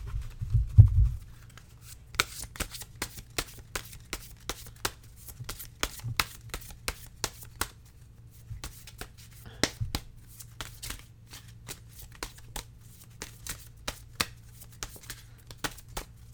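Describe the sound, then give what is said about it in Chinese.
Cards being shuffled over and over before drawing a single card, a steady run of quick, crisp riffling clicks and soft slaps lasting a long stretch, with a low hum underneath and no one speaking. “那我就直接开始喽，开始洗牌。”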